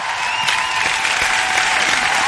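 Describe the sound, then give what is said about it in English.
A crowd claps in a steady, dense round of applause, called for after Penn State knocked Ohio State out, a bright sustained patter of many hands at an even loudness with no voices breaking through. “Well, i I want to get a round of applause for that one because I love.”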